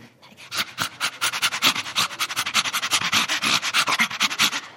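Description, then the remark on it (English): A person imitates a chimpanzee laugh with a rapid, steady run of breathy, panting huffs, fairly loud, continuing for several seconds without any talking. “Sounds a bit of a demonic laugh, but that's what they do.”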